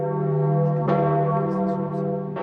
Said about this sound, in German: Neue Päpste werden ihr ausgerufen, ihr Tod mit Glockenschlag verkündet.